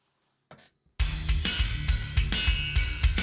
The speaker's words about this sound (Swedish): Nu ska vi alltså lyssna på arabisk metal. Uh, får se hur det låter. Jag tror att det låter ungefär så här.